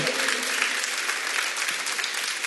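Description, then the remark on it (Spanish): An audience applauds loudly and steadily for God, a dense wash of many hands clapping with no pauses for the whole stretch. “Dar un aplauso fuerte a Él, porque la verdad, Dios oye mi oración.”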